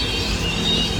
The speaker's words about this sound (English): that's the sound of thousands of so called flying foxes, or what look like. They're giant vampire bats!